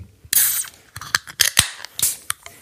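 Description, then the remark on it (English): A can of Shore Lunch shandy from Outstate Brewing Company in Fergus Falls is cracked open: a sharp pop with a bright fizzy hiss, followed by several crisp metallic clicks and scrapes as the tab is worked, with no voices. “All right, we're going to crack it open in the microphone.”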